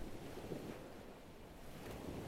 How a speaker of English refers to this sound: even the rhythmic crashing of the ocean to sand.